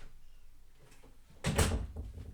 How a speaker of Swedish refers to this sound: För fan, stäng dörren.